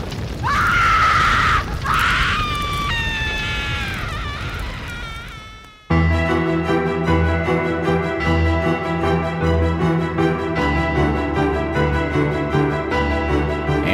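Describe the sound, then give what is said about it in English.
A woman's shrill, wavering screams ring out loudly for about six seconds, rising and falling in pitch, before cutting off abruptly into a thick, sustained droning rumble. “And if one listens close enough, one might even hear the screams of the mad woman who went down with the cursed ship.”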